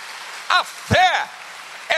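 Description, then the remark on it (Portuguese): A crowd claps steadily in a dense, hissing wash of applause, with a few loud rising-and-falling shouts and whoops breaking out over it. “Então, fé, pode aplaudir se você sentiu.”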